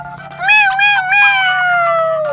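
A single long, drawn-out cat meow, loud, holding steady for about two seconds before its pitch sinks at the end, over a faint low hum.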